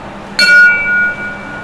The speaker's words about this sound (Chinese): 那接下来还有一个在台湾你会见得到的铁道元素，就是火车的出发是什么呢？是敲钟。可是因为这是 JR 这边哈，我要低调一点。